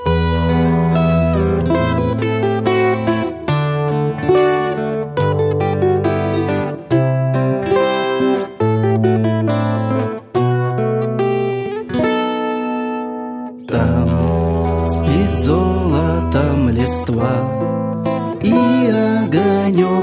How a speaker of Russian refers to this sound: давай, давай хорошую группу послушаем.